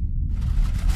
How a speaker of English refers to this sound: Guys, that was just a garbage truck outside.